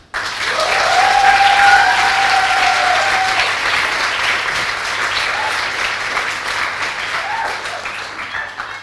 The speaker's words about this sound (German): Ich freue mich sehr, dass sie da ist. Jetzt gibt es eine Twitter-Lesung. Großen Applaus.